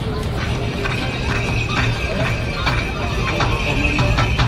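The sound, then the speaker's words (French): Hooves clip-clop in a loose, uneven rhythm on a busy street, while a horse whinnies amid a dense, steady rumble of traffic and crowd noise. “Du coup, si on regarde comme ça, on a l'impression que les chevaux sont fatigués, les voitures sont fatiguées, les hommes sont fatigués, les femmes sont fatiguées, toute la ville est fatiguée.”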